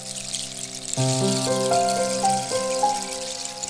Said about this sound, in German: Sie hörte das Plätschern des Wassers die ganze Nacht.